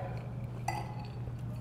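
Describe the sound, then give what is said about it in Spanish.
A single bright clink of glasses touching in a toast over a small drink, brief, over a steady low hum of background noise. “Salud.”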